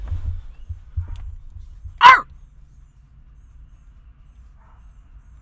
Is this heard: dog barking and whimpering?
yes